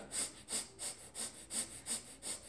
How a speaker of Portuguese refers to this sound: Na, não faça essa respirada.